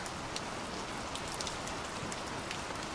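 Steady rain falls in a constant soft hiss, with scattered drops pattering. The wash is even from start to finish, and no voices are heard.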